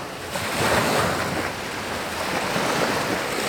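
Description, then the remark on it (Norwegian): Steady surf washes in continuously onto the empty beaches by the promenade in Marmaris, Turkey, a broad rushing roar of breaking waves with a gentle swell in loudness, wind noise mixed in and no voices. “Sjøen slår inn over de like tomme strendene ved promenaden i Marmaris by.”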